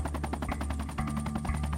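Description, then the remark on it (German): A helicopter approaches, its rotor chopping steadily and blowing snow away on all sides: a fast, even train of thudding beats over a low droning hum, loud and continuous throughout with no voices. “Als sich der Hubschrauber nähert und der Schnee zu allen Seiten wegstaubt”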